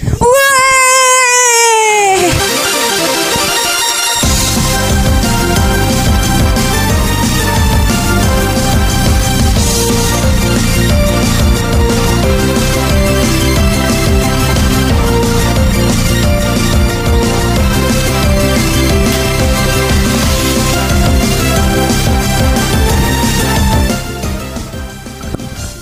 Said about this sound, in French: ce que vous venez d'entendre, c'est la musique euh, dans Pokémon Soleil et Lune euh, d'un combat contre un dresseur